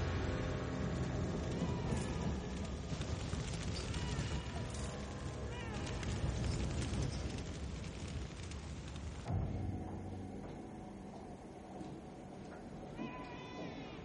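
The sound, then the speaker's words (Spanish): A baby wails in drawn-out, bleating cries amid a dense, noisy background, the sound easing and thinning out partway through. “Los dos policías oyen ahora el llanto de un bebé y acceden a otro pasillo buscando la procedencia del mismo.”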